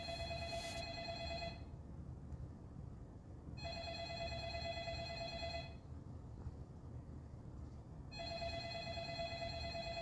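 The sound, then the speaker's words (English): A telephone rings in three long bursts separated by roughly two-second pauses, steady and fairly loud over a low background rumble, with no one speaking. “It's for you. You should answer my own phone.”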